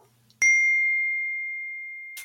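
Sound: glasses clinking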